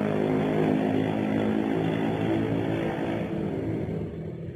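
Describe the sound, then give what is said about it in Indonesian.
A motorcycle with a loud aftermarket exhaust rumbles with a harsh, throaty note, droning steadily and easing slightly as it pulls away near the end. No one speaks. “cuma orang apa yang naik motor pakai kenal pot kayak gitu masih aja gitu ada.”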